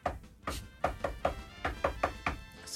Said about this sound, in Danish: Han gemmer sig inde i et skab, tror jeg. Og måden, de forsøger at lokke ham frem på, det er, at de går og banker og laver den her.